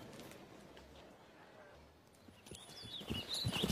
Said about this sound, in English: I hope that's not going to happen every time I ask for money. You could hear the snap of closing purses like hail on a helmet.